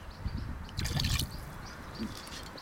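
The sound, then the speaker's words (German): A short splash of liquid pouring into a glass, a brief gurgling burst near the middle with faint trickling and dripping before and after, fairly quiet. “Also ein Spritzer.”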